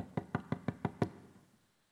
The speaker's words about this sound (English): Now, the Bible doesn't give details, but it does say that instead of barging into Rahab's house, the guards go up to her door and they knock on the door.